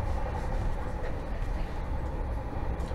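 train interior ambience

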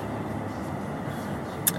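car driving

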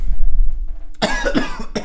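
cough

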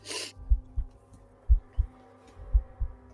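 thumping heartbeat sound effect

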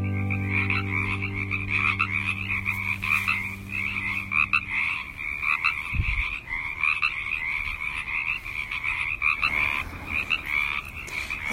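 frogs croaking

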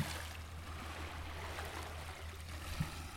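sea waves

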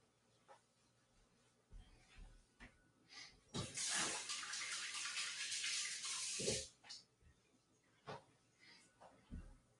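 water running

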